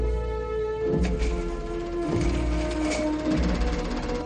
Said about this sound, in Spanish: El ruido de la impresora llama la atención a la mujer, que se quita los cascos.